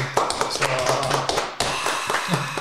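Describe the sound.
A burst of hands clapping, dense, steady and loud for a couple of seconds, as two band members are welcomed at an event of a merchandise store, with voices talking and calling out over the applause.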